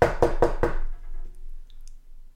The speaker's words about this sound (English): She's, say, in the kitchen preparing some dinner. And there's a knock on the door.